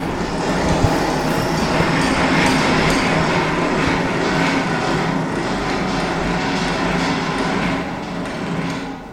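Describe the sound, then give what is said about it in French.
A large observatory dome housing a 600 telescope is opened by an operator, rolling open with a loud, steady mechanical rumble and metallic grinding, like a heavy carriage on rails, continuing unbroken for several seconds with no voices. “vous allez entendre donc le bruit caractéristique de l'ouverture de la coupole.”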